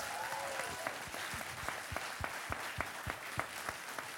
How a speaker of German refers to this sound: Also geben wir doch denen, die da im Hintergrund arbeiten, einen riesen Applaus